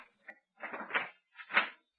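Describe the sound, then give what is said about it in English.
A handle rattles briefly as someone tries a shop door at night, then the door creaks and scrapes open in two short bursts, fairly quiet, with no talking. “Try the door.”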